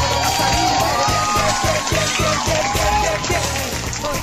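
A steady burst of applause, dense and loud, holding at an even level for several seconds with voices and a faint tonal hum mixed in beneath the clapping.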